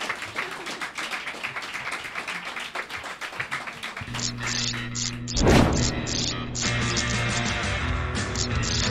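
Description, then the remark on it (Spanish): A few seconds of steady, brisk applause from a small group, which gives way to a sustained tonal musical passage marked by a sharp crash partway through. “Dadme un aplauso y me voy.”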